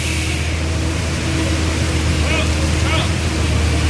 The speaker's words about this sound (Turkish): Ve artık köyde iş makinesi seslerinden başka bir şey duyulmuyor. kepçeler, iş makineleri, dozerler